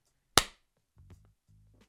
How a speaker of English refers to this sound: gonna do a clap.